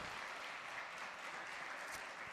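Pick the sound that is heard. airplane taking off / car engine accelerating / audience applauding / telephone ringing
audience applauding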